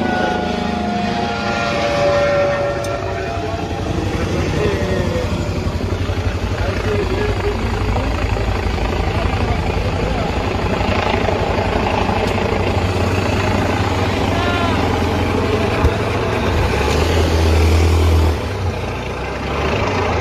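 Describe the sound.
A helicopter drones overhead in a steady, loud rumble with a deep low throb that holds for the whole stretch, while voices murmur faintly underneath.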